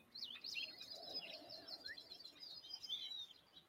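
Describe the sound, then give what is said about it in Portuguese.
A chorus of small spring songbirds, singing and playing, chirps and twitters continuously, overlapping bright high notes over a soft background hush, with no one speaking. “Temos os pequenos passarinhos da primavera cantando e brincando.”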